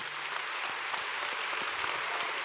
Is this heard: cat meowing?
no